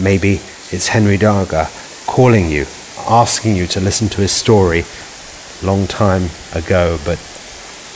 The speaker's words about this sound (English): If you can hear the storm outside me now,